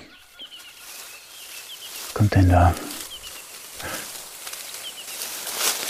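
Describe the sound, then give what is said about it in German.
A giant prehistoric bird, Gastornis, about two metres tall, lets out one loud, harsh, low squawk lasting about half a second, with faint chirping in the background and a person speaking briefly before and after. “Boah, das ist ein riesiger Vogel. Der ist bestimmt zwei Meter groß. Okay, von dem will ich jetzt auch nicht entdeckt werden. Das ist Gastornis.”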